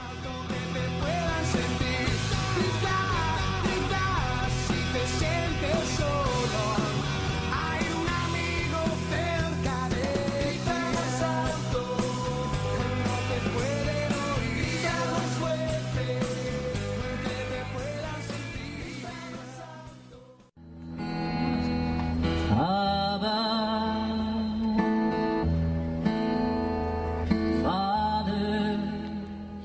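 A recorded song with a male singer singing among a group of friends, over full instrumental backing, loud and steady, briefly dipping near the two-thirds mark before the music picks back up and carries on.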